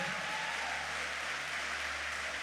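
Steady applause from a church audience for the church's volunteers, a dense continuous wash of clapping that holds at an even, moderately loud level for the whole stretch without any voices.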